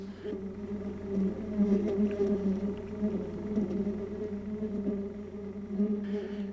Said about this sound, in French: Et à l'horizon se précisait le bourdonnement. Quelque chose comme le bruit de mille ruches géantes.